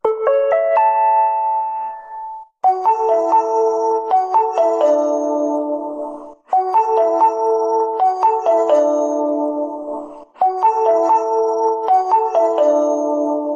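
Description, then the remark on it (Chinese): A brief four-note chime at a Japanese train station, signalling that an announcement is about to begin, rings out in clear, bell-like tones, followed by a bright, piano-like jingle that repeats three times with short pauses between. No one speaks. “那如果大家最熟悉的话，就是一个四点的一个铃声”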